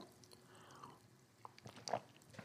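Someone takes a quiet sip of water up close: a few soft, wet mouth clicks and a small swallow, with no talking, over a faint background hiss.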